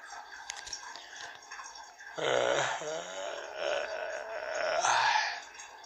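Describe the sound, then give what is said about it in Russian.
A loud, drawn-out straining groan from a man pushing hard while defecating, swelling again into a second effortful moan near the end; quiet background before it starts. “А я потужусь еще немножко.”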